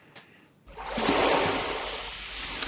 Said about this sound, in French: Ce chant des vagues qui roulent sur le sable a été capté sur une petite plage de Corse par Fernand Desroussins. Il est audio-naturaliste